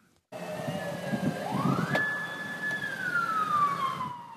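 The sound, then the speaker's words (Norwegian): A police siren wails continuously in Washington, its pitch sweeping up and then gliding slowly down over a low rumble of city traffic, loud with no one talking, as motorcades with police cars and motorcycles escort 45 heads of state around the city. “Sirenene uler uavbrutt i Washington.”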